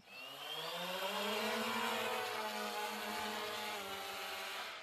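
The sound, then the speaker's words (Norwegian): A camera drone's rotors spin up into a loud, buzzing whine that climbs in pitch and then holds steady as it takes off and hovers, with no voices. The drone flies a mapped grid over houses at an abandoned military camp, taking photos for a 3D model. “Press for takeoff.”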